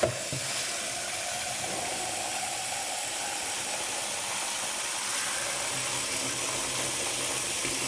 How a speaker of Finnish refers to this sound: Nyt mä paan sen siivilään ja huuhdon sen kylmällä vedellä, koska mä haluan, että se on irtonaista eikä mitään puuroa. Eli kylmä vesi valumaan.